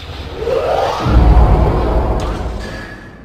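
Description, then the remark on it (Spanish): The rocket engines of a small, fast courier craft howl at takeoff: a rising whine swells into a loud, deep, sustained rumbling roar that fills the scene, continuous, with no one speaking. “no hay más conversación cuando los cohetes empiezan a aullar.”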